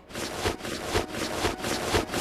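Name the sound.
audio game cue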